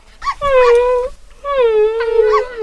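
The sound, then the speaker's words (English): A dog whimpers in its sleep, two drawn-out, high, wavering whines, each lasting under a second with a short pause between, fairly loud and with no talking over them. “When dogs sleep, they wriggle and sometimes whimper.”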